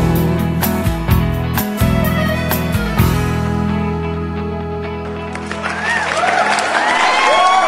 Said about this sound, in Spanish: Aplausos, aplausos jóvenes.